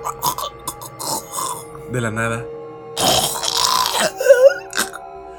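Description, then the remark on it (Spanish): Wet gagging and choking throat noises come in short strained bursts, with a few spoken words woven between them. “Empezó a hacer ruidos con la garganta. Se estaba ahogando”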